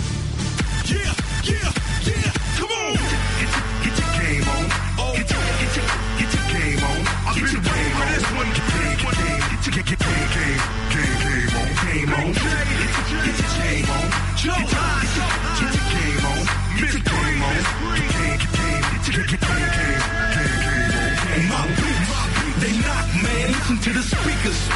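A hip-hop track from an NBA playlist plays loud and continuous, with a heavy bass line and a dense, punchy beat running throughout, and no one talking over it.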